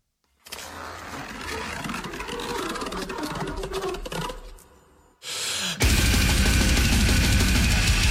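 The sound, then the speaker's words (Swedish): A brutal death metal song in the pig-squeal death metal style: dense, grinding distorted guitars and pounding drums fill the sound, dip briefly after about five seconds, then slam back in even louder and heavier. “Det lär ju vara grisdöds.”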